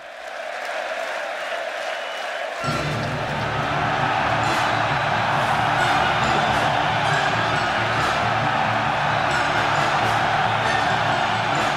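A live concert audience cheering and applauding at the opening of the show, in a dense, continuous roar that swells fuller and louder after the first couple of seconds, then holds steady throughout.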